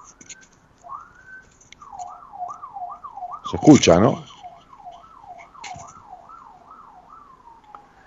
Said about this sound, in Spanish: Entonces, este, ahí está pasando una ambulancia. Ven que tenemos ruido de ciudad, como en las películas norteamericanas, ¿ven?